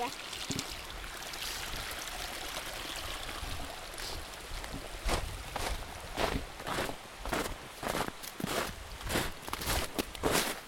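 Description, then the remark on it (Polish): Crunchy footsteps of someone jumping on snow, about a dozen quick, loud thuds in an uneven rhythm, starting midway over a steady rushing-water hiss. “Tak skaczesz po tym śniegu.”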